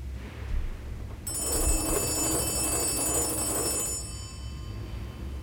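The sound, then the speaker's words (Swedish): A telephone bell rings once as Margit calls John Engblom, a loud, sustained burst lasting about three seconds, then cuts off, leaving a low background rumble with no voices. “Margit ringer till John Engblom för att be honom möta henne.”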